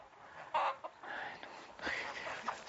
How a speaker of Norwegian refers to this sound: Men nå er jeg ganske sikker på at de som går her inne Det er jo én, to, tre, fire, fem, seks. Så jeg er ganske sikker på at det er hane.